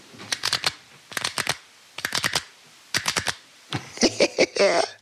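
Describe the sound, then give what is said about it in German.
Crisp clicking from a ballpoint pen being fiddled with on a table, in quick bursts of four or five clicks, then a busier stretch of tapping and handling noise. “Tara, dein Kuli. Du bist schon wieder am Kuli dran.”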